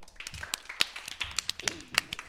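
Scattered applause from a small group for an interviewer at the start of an interview segment: sharp, bright claps with uneven timing, some overlapping, others landing singly, at a moderate level with no talking.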